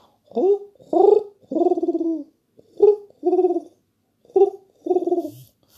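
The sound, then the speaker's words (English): A person imitates a pigeon cooing with a crackle in the throat, voicing three repeated low, throaty coo phrases with short pauses between them, fairly loud, each a soft rising note followed by a longer warbling coo. “Oh, my pigeon's gone terrible.”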